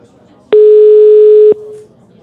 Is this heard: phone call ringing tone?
yes